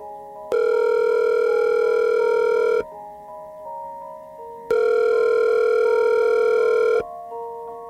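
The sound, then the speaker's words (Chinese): The ringback tone of an outgoing phone call made from an office to the caller's mother: two long, steady buzzing tones of about two seconds each, separated by a pause, loud and alone with a faint hum underneath. “我当时就是在办公室打电话给我妈。”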